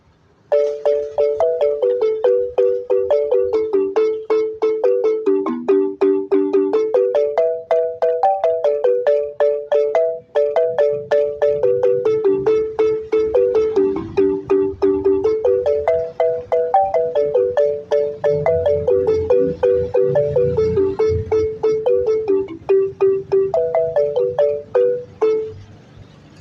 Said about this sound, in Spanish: es el sonido del balafón, la interpretación de … aquí en pleno centro de la ciudad de Santa Cruz de la Sierra